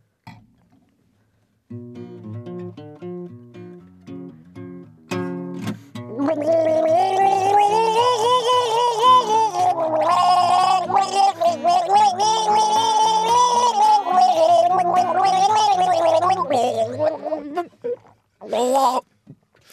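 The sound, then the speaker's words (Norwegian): Someone gargles a humorous tune as a short comic musical piece (a humoresque): after a few low, steady tones, a long, loud bubbling gargle wavers up and down in pitch like a melody, ending with a brief final burst. “Jeg gurg ler.”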